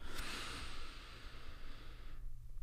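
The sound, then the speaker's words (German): A slow, deep breath drawn in and let out again, an airy rush lasting about two seconds, fairly loud over a low steady hum, with no talking. “Jetzt nehmen wir noch einen Atemzug gemeinsam, tief ein und aus.”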